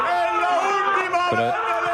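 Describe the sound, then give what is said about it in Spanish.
Lobo Carrasco screams in celebration as Montiel scores the last penalty, the one that gives Argentina the victory: a loud, strained, continuous yell that holds a high pitch for two seconds, briefly cracking lower partway through, with faint crowd noise underneath. “Y ahora atentos a la voz de detrás, ¿eh? El grito.”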